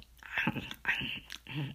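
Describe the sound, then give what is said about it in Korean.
A voice imitates crunchy munching, with three short bursts of chewing-like mouth noise in quick succession, like someone loudly crunching a snack, illustrating the English word munch. “씹는 그런 쪽의 단어는 munch, munch, munch 하면은 이렇게 뭐 우적 이렇게 우적우적 이렇게 과자 먹을 때 먼칭한다 이런 말도 많이 쓰죠.”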